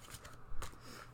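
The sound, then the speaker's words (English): A quick riffle of a deck of playing cards being shuffled, a soft papery flutter with a sharper burst of card snaps in the middle, heard on its own. “I'm shuffling the deck and we're tuning in.”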